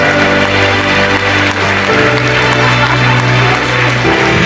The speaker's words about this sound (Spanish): Aleluya fuerte el aplauso de los que ya no tienen dolor.